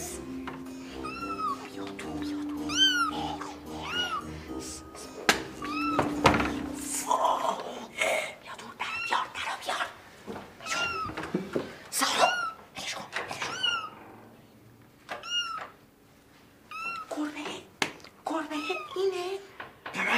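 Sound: cat meowing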